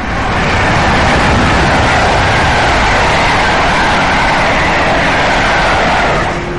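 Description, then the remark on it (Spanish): A loud, continuous jet engine roar of a Concorde airliner fills the whole stretch, a dense rumbling rush that holds steady throughout with no voices over it. “Y el rugido de su motor se escucharía en todo el mundo.”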